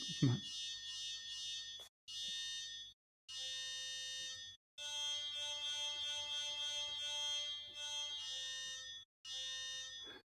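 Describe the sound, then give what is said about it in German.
A bright, buzzy synth tone with reverb, the reverb set by a finger's position on an infrared strip, sounds in several long held stretches separated by brief silent gaps, steady and fairly loud, with a short low thump at the very start. “In diesem Fall habe ich jetzt auf diese Infrarotleiste, je nachdem, wo sich der Finger in dem Bereich auf der Leiste befindet, kann man äh, den Reverb einstellen.”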